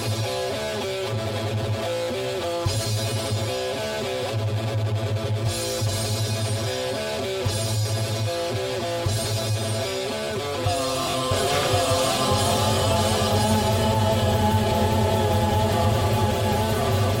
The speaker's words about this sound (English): Yeah, I think the first band just kind of nailed it. Yeah, I mean, let's hear one more time.